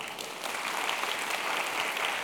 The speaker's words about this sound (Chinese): 我们把掌声归给神好吗？